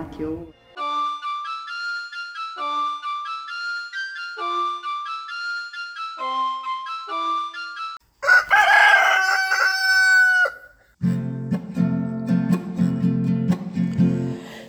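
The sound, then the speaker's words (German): A short repeated melodic phrase gives way to a loud rooster crow, followed by a few seconds of dense, low clucking from hens. “Die Henne sitzt in ihrem Nest und brütet nun ganz fest. Wann knackt das Ei, fragt nun der Hahn, wann ist es denn soweit?”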